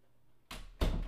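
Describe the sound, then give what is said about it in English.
A door swings shut: a first muffled bump is followed a moment later by a louder, fuller thud, with no voices. “Close the door on the way out.”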